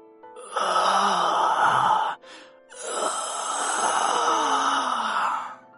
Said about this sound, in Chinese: 突然，李阳的喉咙里发出了一种类似窒息的声音。